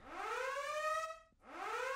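A loud siren wails with a rising harmonic tone, sweeping up and holding, briefly cutting out, then rising again in a second cycle. No voices are heard.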